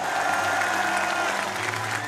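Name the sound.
crowd cheering and applauding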